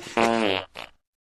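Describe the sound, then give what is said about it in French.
A loud fart with a long buzzy, tonal blast lasting about half a second, then a shorter sputtering puff before silence. “Qu'est-ce que je sens Oh, c'est une perlouse”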